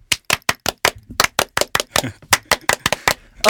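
A group gives a French applause to welcome a guest, clapping in unison in a crisp, rhythmic pattern of about twenty sharp synchronized claps in quick counted bursts. No one speaks.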